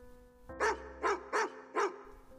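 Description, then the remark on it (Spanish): A dog barks four times in a steady, evenly spaced rhythm, each bark sharp and fairly loud against a quiet background with a faint steady hum. “El perro ladró.”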